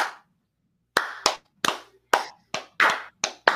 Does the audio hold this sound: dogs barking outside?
no